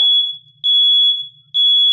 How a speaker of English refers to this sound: and I'm gonna get a headache because of the damn alarm. And now it finally stopped. No, it didn't. Come on!